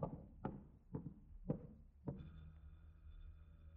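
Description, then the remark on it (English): Four firm knocks rap on a wooden front door of an apartment at a steady, evenly spaced rhythm, followed by a low hum of room tone. “Uh, somebody at the front door.”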